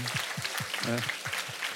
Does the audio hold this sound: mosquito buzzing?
no